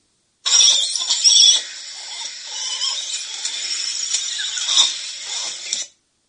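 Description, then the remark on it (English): Cat Ba langurs squeak and squeal in a continuous, high-pitched chorus lasting several seconds, loudest at the start with a few sharper cries near the end. No talking. “so here is what I would call more some of their squeaks and squeals.”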